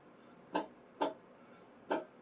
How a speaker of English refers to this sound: It sounds like a clock is a fucking grandfather clock is ticking. I know it's his chair, but still.